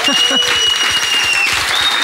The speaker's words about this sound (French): Applaudissements du public peut-être.